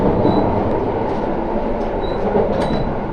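Steady rumble of the Relay Kamome No. 3 limited express train running along the rails from Hakata to Kohoku in Japan, a dense, continuous roar with faint high squeals and no voices, heard from inside.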